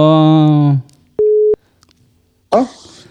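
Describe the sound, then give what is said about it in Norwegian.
A single short, steady electronic phone tone of an outgoing call ringing sounds once between bits of talk as a man calls another man; a voice is heard before it and another voice begins just after. “Eh, nå ringer det snart her.”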